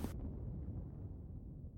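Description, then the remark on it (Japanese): A sharp crack of a lightning strike opens as a tengu's lightning hits a monster in battle, then gives way to a deep, rolling thunder rumble that sustains to the end. No voices. “夕刻決着がついた天狗の雷が化け物に直撃し黒焦げとなった”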